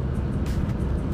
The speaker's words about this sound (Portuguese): O meu carro tá fazendo mais barulho do que o normal